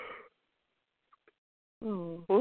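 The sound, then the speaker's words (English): A person yawns aloud near the end, a drawn-out voiced groan that starts after a stretch of near silence, preceded by a short breathy sound at the very beginning. “Oh, actually, I haven't even started talking yet, and you're yawning.”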